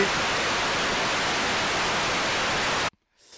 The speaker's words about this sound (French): Le la neige de la TV.